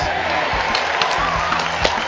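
A dense, steady burst of applause and cheering from a group, loud and close, holding at an even level for a couple of seconds with a few sharper claps standing out.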